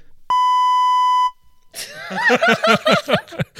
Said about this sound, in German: Nee, weißt, wir piepen einfach nur die Wertung.